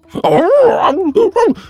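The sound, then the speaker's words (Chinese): A voice imitates a sheepdog yelping in pain after being bitten by a shar-pei: one long, wavering, moaning cry that rises and falls, then two shorter sharp whimpers, loud and alone. “牧羊犬顿时一声惨叫，再次缩到一边舔伤口去了。”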